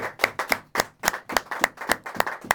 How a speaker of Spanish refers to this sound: Démosle palmas al Rey que vive.